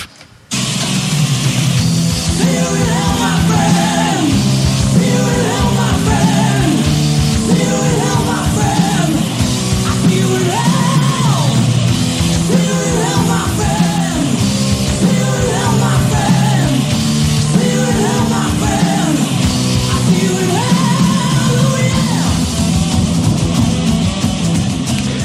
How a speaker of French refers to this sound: Mais comme à l'habitude, on a un jingle pour tout. Donc, on s'en va entendre cette non-minute de silence en l'honneur de M. Petrov.